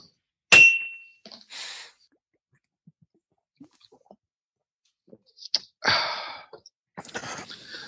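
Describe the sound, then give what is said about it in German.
Beer bottles, one of Dittmarscher Urtyp from a private brewery in Marne, Holstein, clink together once in a toast, a sharp glassy knock with a brief ringing tone, followed by quiet handling noises and a few soft hissing, swishing bursts. “Prost. Ja, Prost.”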